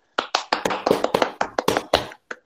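Applause: a dozen or so sharp, bright hand claps in a quick, uneven rhythm, somewhat overlapping, lasting a couple of seconds with no voices.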